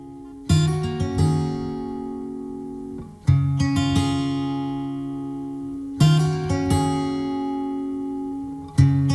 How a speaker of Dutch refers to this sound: Het trio uit West-Londen heeft een nieuwe single uitgebracht... En dat heet …. Daar gaan we nu naar luisteren.